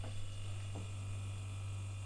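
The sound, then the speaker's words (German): A refrigerator hums steadily, a low constant drone with a faint electrical buzz layered over it, unchanging, with no voices. “Der Kühlschrank summt gleichmäßig.”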